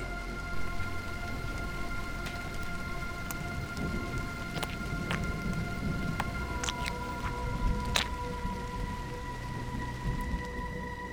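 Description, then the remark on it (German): Steady artificial rain pours throughout, with sharp drops pattering over a dense hiss and a faint, even electronic hum underneath. No one speaks. “Die Saison des künstlichen Regens ist vorbei.”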